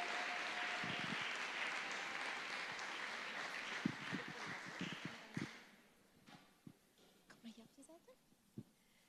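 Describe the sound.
A crowd applauds with dense, steady clapping for about five seconds before it quickly dies away, leaving a few scattered claps and murmuring voices in a quieter room.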